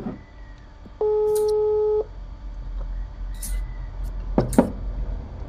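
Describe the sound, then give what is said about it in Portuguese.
A telephone ringing tone as a call is placed again: a single steady, mid-pitched beep lasting about a second over a faint background hum, followed later by a couple of sharp clicks. “Vou ligar novamente.”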